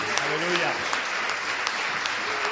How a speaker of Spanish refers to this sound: Fuertes aplausos para la gloria de Dios y de apoyo a nuestros hermanos. Amén.